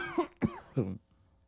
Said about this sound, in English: like every time I hit Delta 8, you're guaranteed to just cough your nuts off.